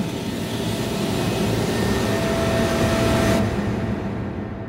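A helicopter engine runs on the Siri oil platform with a loud, steady roar and a faint whine, continuous throughout with no voices; the hissy upper edge drops off abruptly near the end.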